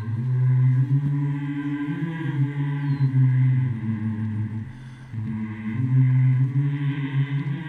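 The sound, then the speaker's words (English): A group of elders hums a slow, somber hymn in low sustained tones, swelling steadily with a brief dip before resuming; no words are sung or spoken. “the sound of all the Pride elders humming a somber hymn resonates in the air.”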